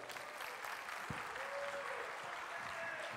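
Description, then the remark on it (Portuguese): An audience claps steadily throughout, a dense, even patter of many hands at constant loudness, with faint murmurs and a brief whistle-like tone mixed into the applause. “Dá uma salva de palmas para ela, vai.”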